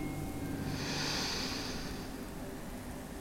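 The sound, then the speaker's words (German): A single deep, slow inhalation, a soft airy rush that swells and then fades, with no talking. “Sie schnaufen tief ein”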